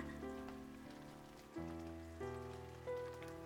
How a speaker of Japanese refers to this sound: 雨が降ってきたからここで少し雨宿りしようか。この葉っぱ大きいから傘の代わりになるよ雨が強くなってきたねしばらく降りそうだから一旦ここでお休みしようか